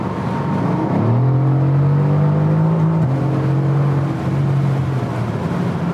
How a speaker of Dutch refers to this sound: Geven we de sportuitlaat aanzetten en nu even op het gas. Klein stukje dan.